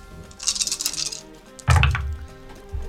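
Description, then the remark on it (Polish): Dice rattle and clatter across a hard surface, a scattered burst of bright clicks followed by a heavier thud and tumbling as they land, with no talking. “Rzuć. Aha, to będzie głośno.”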